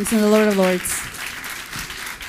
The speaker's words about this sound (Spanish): ese fuerte aplauso al Rey de Reyes y Señor de Señores.